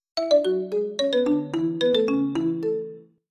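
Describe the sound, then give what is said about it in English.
The classic Nokia ringtone plays from a worn mobile phone inside a purse, a quick bright melody of plucked electronic notes about three seconds long, clear, with no one speaking. “Nokia's famous ringtone yanks my brain from its frantic rumination over my lack of alternative money making prospects.”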